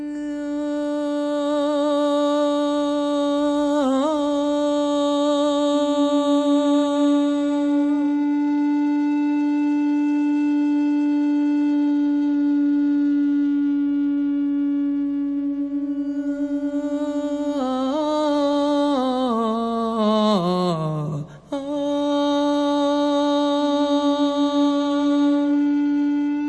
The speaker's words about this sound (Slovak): Počúvate hudbu …, počúvate skladbu Capstone z dlažobnej kocky, skomponovanú v roku 2022, znie v podaní súboru Alia Amnis.